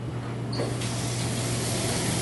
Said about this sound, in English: is put it in an ice bath, you know, like ice water, or just, you know, rinse it with cold water to stop the cooking process so it doesn't overcook.